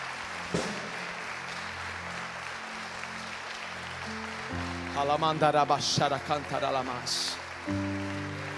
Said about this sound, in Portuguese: Deus está honrando você. Pode aplaudir o Senhor.